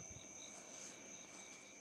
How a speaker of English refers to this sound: Hear the crickets in the I background? I do hear the crickets. They're there for a reason.